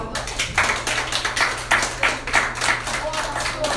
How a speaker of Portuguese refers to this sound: Obrigado pelas palmas.